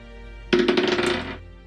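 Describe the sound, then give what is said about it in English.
Dice rattle and tumble across a hard surface in a quick burst of bright clicking for just under a second, then stop; no one speaks. The roll, with a plus three modifier, comes up 14 for a total of 17. “So plus three it is. Rolling for it.”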